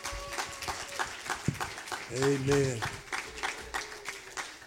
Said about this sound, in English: give the Lord a hand clap in this house tonight?